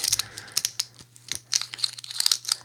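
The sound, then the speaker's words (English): A rapid, irregular series of sharp mouth clicking noises made by the speaker, like tongue clicks, crackling in quick bursts with no talking, over a faint low hum. “uh, like I was talking in some sort of ah, some sort of African clicking language, like you hear about on South Park.”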